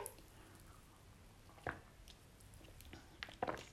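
A quiet sip from a drink, with a few soft wet clicks and a small slurp, followed by a brief swallow-like squish amid otherwise hushed surroundings.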